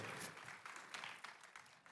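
Applause from an audience, a dense steady patter of many hands clapping for about two seconds, fairly quiet overall, with no speech over it.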